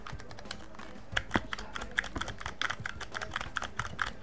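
Rapid typing on a computer keyboard, a steady stream of crisp clicking keystrokes with a few sharper, louder taps standing out, no voices.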